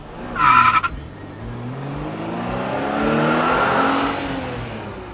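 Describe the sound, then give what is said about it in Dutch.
A short tire squeal, then a car engine revving up and pulling away, rising pitch over several seconds as it accelerates off, loud. “En daarna karren we door”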